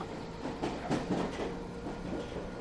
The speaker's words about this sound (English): As the train an electric locomotive with 26 carriages, pulled out of a railway siding at Hounslow in West London at exactly 6:48 a.m.